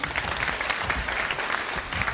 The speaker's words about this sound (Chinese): 好，我们先掌声有请我们的演员上台，好吗？